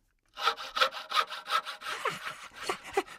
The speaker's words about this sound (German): Ja, also der Fuchsschwanz ist das Lieblingswerkzeug des Kobolds und ihr werdet staunen, was der Kobold in unserem nächsten Rätsel mit dieser Säge alles anstellt.